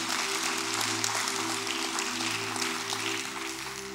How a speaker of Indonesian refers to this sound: Berikan tepuk tangan, berikan tepuk tangan yuk.